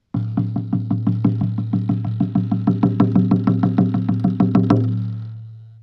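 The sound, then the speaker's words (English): A steady, rapid run of drum strikes, about six per second, rides over a deep resonant hum that builds between hits, then the hum lingers and fades after the striking stops. “listening for the sound, um, the sound and the vibration the drum makes in between the strikes.”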